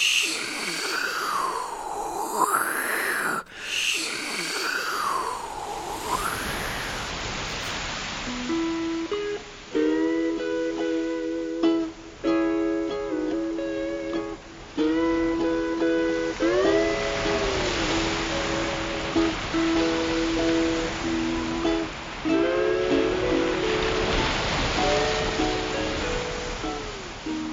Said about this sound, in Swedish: Och den här heter då Flanger. Och den ger som ett eh, susande, liksom, att det, att det är som vågor som sköljer över.